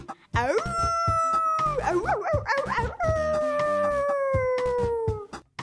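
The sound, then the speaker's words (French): A person imitates a wolf, holding a long, loud howl that rises, wavers in the middle, then slowly slides downward for several seconds, with no talking. “Alors, je vais vous imiter le, bruit d'un loup.”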